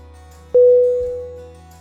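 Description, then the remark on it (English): A single steady electronic telephone tone sounds abruptly, holds clear and fairly loud for about a second, then fades out over a low background hum. “He dialed the phone number and waited for an answer.”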